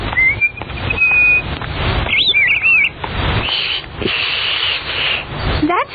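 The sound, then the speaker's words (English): Birds chirp and call in short bursts: a few thin whistled notes, then a quick warbling run and a rising tweet near the end, all over a steady rustling hiss of outdoor noise. “Well, it's like talking to the birds. And if we're lucky, the birds will talk to us.”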